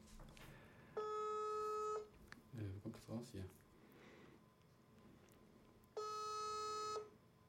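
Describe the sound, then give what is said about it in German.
A phone ringback tone plays over a speakerphone, two steady, buzzy one-second rings about five seconds apart, with a brief burst of voices and faint noise between them. “Also meistens geht er nicht ran, wenn ich anrufe.”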